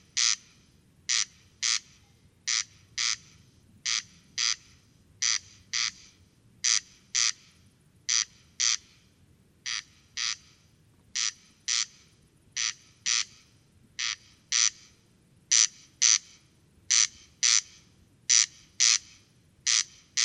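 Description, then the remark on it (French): A corn crake repeats its dry, rasping double call, crex-crex, in a steady, unbroken rhythm, clear over a quiet, faintly rumbling night background with no voices, at 23:10 on a windless, clear, starry night of about 15-16 °C. “Observation sonore - Le Râle des genêts”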